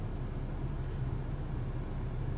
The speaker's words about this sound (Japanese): 車の中から撮っておりますので、えー、エンジン音はご容赦いただければと思います。